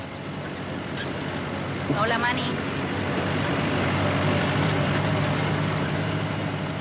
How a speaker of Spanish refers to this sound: Entonces llega un tractor